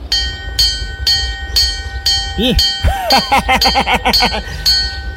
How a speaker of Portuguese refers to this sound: Ah, tem uma corda aqui. Ah, pra que serve essa corda? Meu? Deve ser a campainha. Cada campainha, sei não, viu?